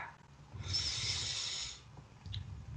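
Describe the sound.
A single long, breathy yawn lasting about a second, with a low throaty undertone and a softer exhale trailing off afterward.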